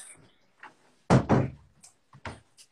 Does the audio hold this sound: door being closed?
yes